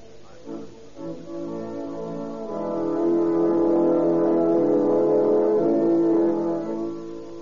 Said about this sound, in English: In a little white church in San Diego, the Reverend Herbert Wilson also hears the distant strains of patriotic music, feels the call to serve his fellow men at the front.